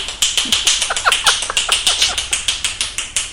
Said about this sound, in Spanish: Pues es un chavalín que tendrá unos 13, 14 años, está en edad también. Y si mueve así los dedos para hacer chasquido